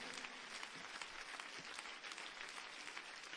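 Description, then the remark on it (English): A church audience claps together for Jesus at the end of a prayer in a dense, sustained wash of applause, many hands blending into a steady roar with no talking over it. “Clap your hands one more time for Jesus.”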